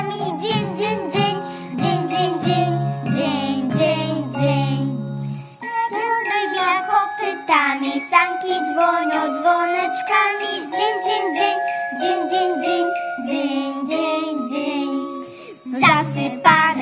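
Sleigh bells jingle in a steady, rhythmic shimmer throughout, layered over a lively, bouncy melody that carries on without a break.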